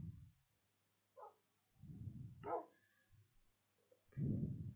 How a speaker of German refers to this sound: ah, hier ist ein Wolf.